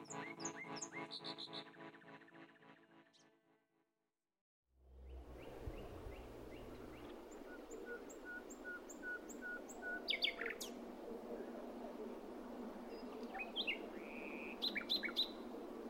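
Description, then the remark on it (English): A nightingale sings at night in short, varied phrases of whistles and rapid chirps against a steady hiss of outdoor ambience, following a few seconds of tonal music and a brief silence. “And it's the most incredible, one of the most incredible moments for me remembering those bits of dark night in the spring when the nightingales just sing along with your song.”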